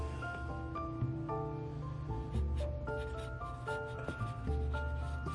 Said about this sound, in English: sorry, just need to pencil something here.